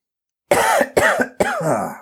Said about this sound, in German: Kurz mal gehustet.